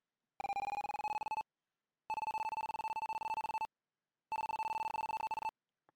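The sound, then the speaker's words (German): A steady electronic computer mouse-position tone, panned fully to the right as the mouse is pushed to the upper right corner of the screen, sounds in three separate bursts of about a second each with short silences between. It has a rapid buzzing flutter, is fairly loud, and no one speaks. “So, ihr hört, der Ton ist ganz rechts.”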